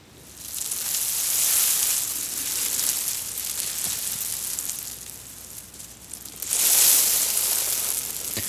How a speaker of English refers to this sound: This is much more like AS, uh, more like white white noise. Mm. They've got a lot of background noise in, in, here as well, which is kind of quite a nice background noise. Oh, there's maybe there's even recordings of cicadas and stuff.